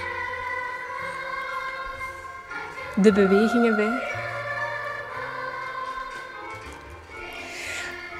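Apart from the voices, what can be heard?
children's song playing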